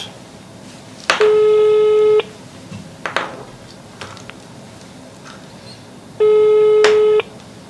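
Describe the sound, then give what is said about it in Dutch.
A phone line's ringback tone sounds twice while calling someone live from a studio, each steady one-second burst followed by a few seconds of quiet with faint background clicks, heard through the handset. “De telefoon gaat in ieder geval over.”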